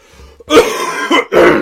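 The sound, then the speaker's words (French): A person with a frog in their throat, having just taken a drink of water, clears their throat and coughs in a few harsh, raspy bursts: a short quiet start followed by two loud rough blasts with a brief gap between them, with no talking. “So, m'excuse, j'ai un chat dans la gorge, je viens de prendre une petite drink d'eau.”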